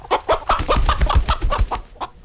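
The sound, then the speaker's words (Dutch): Chickens cluck in a quick, uneven run of short bursts inside a simple wooden hutch with chicken wire in a caravan at a campsite, several calls overlapping for a couple of seconds with no talking. “Van buiten kon je dan de kippen wel horen.”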